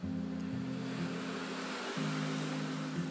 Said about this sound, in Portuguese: enquanto os carros e as motos nos acompanham aí nessa aventura